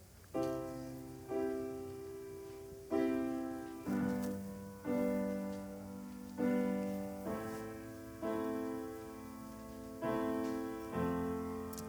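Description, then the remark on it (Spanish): A series of about eleven piano chords, including C, D, E, F and G, struck one after another at a steady, unhurried pace, each ringing out and fading before the next. The playing is clear, with no voices. “¿Nos puedes hacer el acorde de Do, por favor? Ahora el de re, el de mi, fa, sol.”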